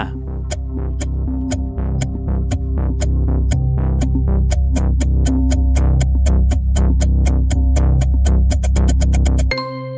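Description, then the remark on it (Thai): A ten-second countdown timer for answering a music quiz question ticks steadily over a low, droning musical bed, the clicks crowding closer together near the end before cutting off abruptly. “10 วินาทีจับเวลา”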